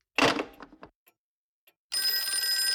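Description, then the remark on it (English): An old-fashioned telephone bell rings loudly: a short rattling jangle, a brief silence, then a sustained metallic ringing that carries on to the end. “Stop ringing me, do you hear?”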